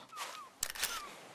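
A camera shutter clicks in a quick mechanical burst as two people take photos of each other at a beach: a sharp snap followed by a second rattling click, clear, with a faint high whistle-like tone before and after.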